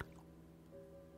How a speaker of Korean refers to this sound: 찰박 하고 희미하게 물소리가 들려오는 걸 깨달았다. 잉어가 튀어오르기라도 하는 건가 싶어 창밖을 내다보았다.